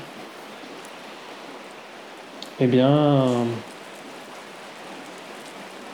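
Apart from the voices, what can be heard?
steady rain falling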